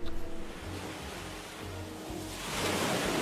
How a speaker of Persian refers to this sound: پایین آن کنار دریا گل و ماسه بود که آب دریا کمی دورتر از آن موج میزد